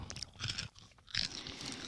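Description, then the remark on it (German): Crunchy chewing of crisp puffed vanilla-flavoured corn snack balls, with bursts of sharp crackling bites and a brief pause in the middle, loud with no talking. “Sie knuspern lecker.”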